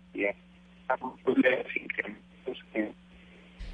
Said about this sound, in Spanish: Yo creo que usted está en un teléfono celular y por eso, pues como sucede normalmente cuando uno tiene llamadas por celular, se empieza a perder la señal.